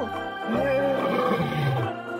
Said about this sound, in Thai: เมื่อไก่เห็นสิงโตเข้ามาใกล้คอก มันจึงร้องขันเสียงดังเพื่อปกป้องเพื่อนของมัน เสียงขันของมันดังราวกับเสียงของสิงโตคำราม